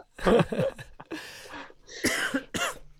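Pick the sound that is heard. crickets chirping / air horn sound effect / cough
cough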